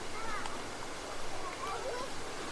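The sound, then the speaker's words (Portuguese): A waterfall in the Tenondé Porã territory roars in a steady, unbroken hiss of rushing water that fills the whole clip, with faint voices barely audible beneath the noise. “É um cachoeira, né?”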